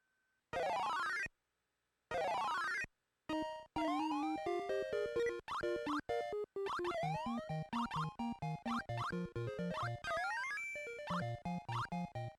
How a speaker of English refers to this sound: Mighty Bomb Jack is the perfect example of terrible, unlistenable NES music